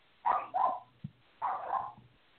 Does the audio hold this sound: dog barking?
yes